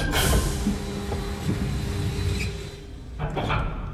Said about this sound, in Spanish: El sound effect de, de cerrar la puerta de X-Men. cerrar la puerta de X-Men. Wow. Sí, sí, sí, sí, sí, La de Cerebro. La de Cerebro.